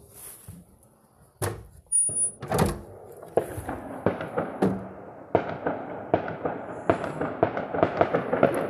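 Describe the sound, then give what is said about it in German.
Repeated sharp bangs and crackling pops of fireworks going off outdoors in a residential neighbourhood on a weekday, a few loud booms early on, then a rapid, irregular string of cracks. “Ich glaube, das ist ein Feuerwerk, ehrlich gesagt.”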